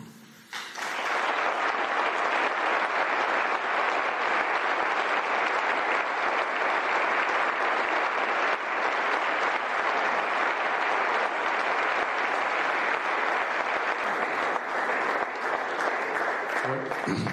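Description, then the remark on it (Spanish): Sustained audience applause after a speech, before the turn for questions: a dense, steady roar of many hands clapping that starts abruptly and stays loud and even for the whole stretch without fading. “Yo creo que esta ocasión no tendría fin, podríamos estar molt de temps aplaudint”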